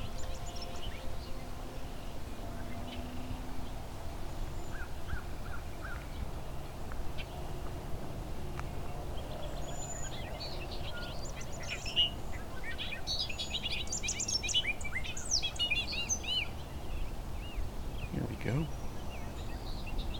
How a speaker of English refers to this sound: Song Sparrow